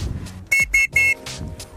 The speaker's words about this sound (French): Voilà un petit coup de sifflet pour rappeler de pas trop s'approcher.